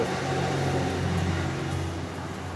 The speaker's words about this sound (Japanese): 今日の格好というかまあ今なんだけれども傘をさして、えー、と歩いているので、えーとまあ、この音声にも雨音が傘で跳ね返る